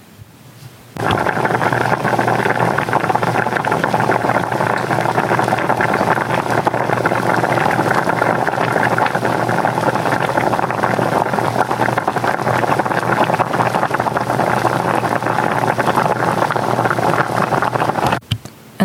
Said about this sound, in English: There is nothing my ears like more than the sound of a good meal the crackling of the pan. The bubbling of boiling water.